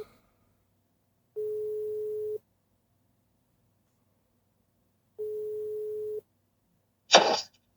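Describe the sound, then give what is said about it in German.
Two long, steady electronic telephone ringback tones, each about a second, separated by a few seconds of silence, followed by a short burst of noise as the line seems to pick up. “Ich muss eine Geschichte aus Tschechien erzählen und dazu will ich jemanden anrufen.”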